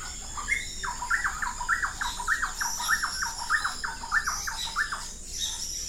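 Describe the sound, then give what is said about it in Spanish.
Birds sing in the trees surrounding the main house, one voice repeating a rhythmic series of squeaky, rising-and-falling notes about twice a second, while fainter high chirps and calls fill the background. No one speaks. “Otras simplemente es una combinación desordenada pero a la vez perfecta del canto de las aves que habitan o visitan los árboles circundantes de la casa principal, sobre todo en el Salón de las Hamacas, mi lugar favorito para escuchar y grabar”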